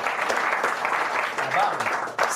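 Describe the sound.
An audience applauds steadily for a member of the show's team, a dense crackle of many hands clapping at an even, fairly loud level, with a few voices mixed in before a brief dip and a final burst.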